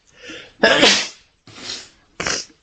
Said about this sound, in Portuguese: Eu quero espirrar.